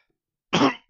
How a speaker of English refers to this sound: Sorry for the cough. It's been a rather congested year so far.